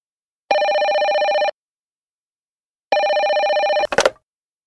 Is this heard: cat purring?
no